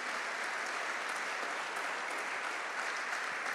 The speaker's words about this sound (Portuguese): Então vamos aplaudir ao Senhor em nome de Jesus.